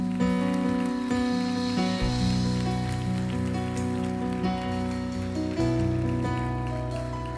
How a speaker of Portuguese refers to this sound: Eu queria que você desocupasse suas mãos e você aplaudisse Jesus, por favor.